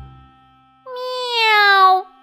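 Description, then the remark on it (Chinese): A single drawn-out cat meow, loud and clear with a slightly falling pitch and rich harmonics, lasting about a second after a brief quiet start. “怎么有猫叫呀？”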